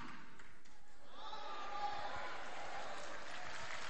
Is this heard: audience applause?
yes